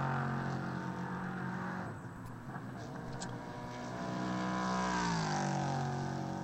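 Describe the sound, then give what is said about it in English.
A V8 race car engine growls loudly and continuously in the morning in Central Florida, its pitch dipping and then sweeping up as it revs, with sharp popping crackles breaking through the deep rumble. “There is nothing like the sound of a V8. Just popping and banging and growling away at this time of the morning.”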